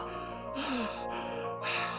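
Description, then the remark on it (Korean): Heavy, rapid panting breaths, three or four loud breathy bursts separated by short pauses, from an exhausted runner completely out of breath after running, with no talking. “그는 숨을 헐떡거리면서 모든 일이 잘 되었습니다.”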